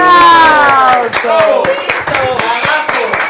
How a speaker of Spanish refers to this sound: ¡Aplausos! ¡Aplausos!